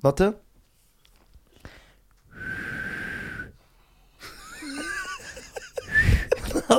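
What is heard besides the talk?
person attempting to whistle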